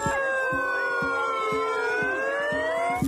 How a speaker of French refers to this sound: Compliqué, ça l'est un peu depuis l'adoption du projet de réforme des retraites, car les ministres sont eux aussi accueillis par des casseroles et des huées à chaque déplacement.